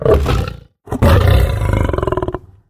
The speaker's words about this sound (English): and here's a roaring lion.